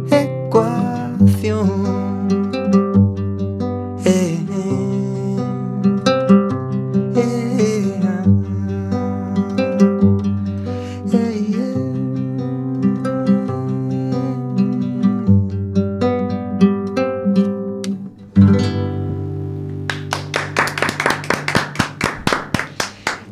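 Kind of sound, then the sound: song played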